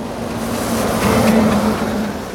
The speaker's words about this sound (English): The race car lacked the speed to clear the canyon and plummeted into the canyon.